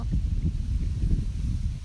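Gentle waves lapping along the shore of Lake Shikaribetsu with a steady low wind rumbling beneath, soft and continuous, with no voices.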